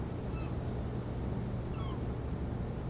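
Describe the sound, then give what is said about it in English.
Two short seagull cries, one early and one near the end, sound faintly over a steady low rumble like a boat engine or water. No one speaks. “Yeah, I think that was a seagull.”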